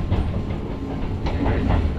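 A Hakone Tozan Railway mountain train rolls along its rails between Sōunzan, Gōra and Miyanoshita with a steady, dense rumble, broken by faint rhythmic clicks and metallic squeaks; low-pitched and continuous, with no voices.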